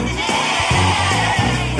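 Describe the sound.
Several voices imitate sheep on cue when sheep are named, letting out a few loud, wavering bleats in quick succession, full, with a steady background wash beneath them.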